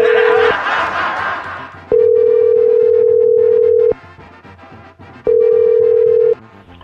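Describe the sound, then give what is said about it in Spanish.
A telephone ringback tone after a phone call is dialed: a steady, mid-pitched electronic hum sounding in long, evenly spaced pulses about two seconds each, with soft background noise and a brief burst of murmuring at the start. “Lo sacará su papá de la cárcel, vamos a marcar.”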